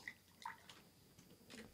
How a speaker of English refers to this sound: Classic French drip. You put about an ounce of absinthe in the bottom of a glass.